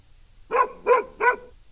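A dog barks three times in quick, evenly spaced succession, each bark short and clear against a quiet background with no one talking.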